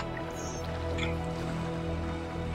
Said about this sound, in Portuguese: Por esse dia inteiro, uma chuva castiga vocês, assim, incessante